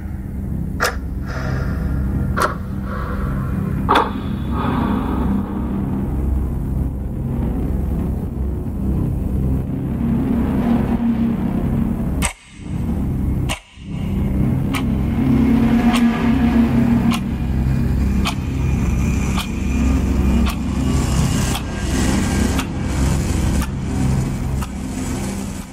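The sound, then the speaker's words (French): Video game soundtrack music intensifying as the player approaches an enemy or an important point in the game: a loud, steady low rumbling drone with sharp percussive hits that grow more frequent after two brief cut-outs midway, the music's tempo rising. No one speaks. “Et là, vous remarquez que euh, le son monte, en fait, ce qui se passe dans cette phase de jeu, vous voyez pas, mais vous entendez.”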